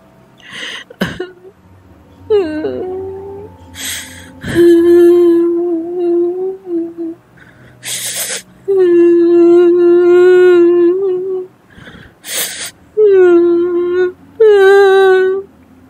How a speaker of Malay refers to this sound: pesakit tu makin lama makin kuat dia menangis